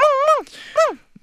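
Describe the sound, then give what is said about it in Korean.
A person imitates Coco, a six-year-old poodle, barking suddenly at 5 a.m., with two drawn-out, rising-then-falling yelps, fairly loud, separated by a short breathy rasp, then a few faint clicks. “음 코코야 왜 그래 새벽에 갑자기 짖길래 저는 밖에서 발소리가 나서 그러나 보다 하고 다시 잠들었습니다”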